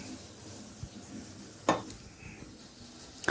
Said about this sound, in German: Also ein paar Minuten schwitzt das jetzt mit an.